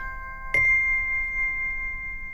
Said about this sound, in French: ça fait assez primaire. C'est un petit carillon pour bébé.